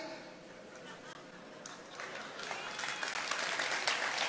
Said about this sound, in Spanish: Gracias el hermano. Empezó por allá el aplauso.